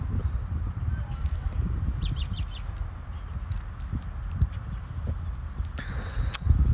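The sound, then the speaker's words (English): A steady, rumbling clatter of gravel being poured on a morning, with scattered sharp rattles and clicks over a dense low roar, with no voices. “And as I sit here and wow, we got some gravel being poured.”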